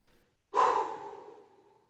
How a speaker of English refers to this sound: Love to do that little breathing bit first. Feels so yeah. good. Yeah. Feels so good.